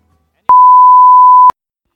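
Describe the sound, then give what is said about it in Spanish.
A single steady electronic beep from an answering machine, at one pitch, lasting about a second with sharp onset and cutoff, loud and alone against silence. “Estamos en casa, pero no disponibles ahora para poder atenderte, por lo cual vas a tener que hablar con nuestro contestador.”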